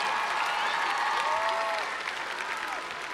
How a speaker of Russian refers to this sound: Ваши аплодисменты. Громче, громче аплодисменты.